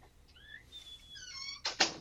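A door swings shut. A thin, squeaky creak rises and wavers, then ends in a quick double knock as it latches. No one speaks.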